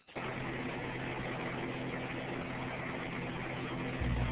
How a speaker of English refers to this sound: Car driving down the road.